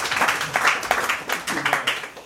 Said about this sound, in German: Ihr dürft auch klatschen.